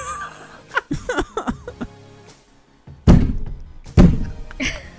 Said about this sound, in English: We got a new sound effect. There's some we have a we have a guest, you can pound on the door again like that.